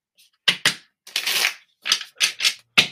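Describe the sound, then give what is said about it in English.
Crisp riffling of a deck of tarot cards being shuffled for a tarot card reading, in several quick bursts with one longer flurry in the middle, no voices. “So shuffle.”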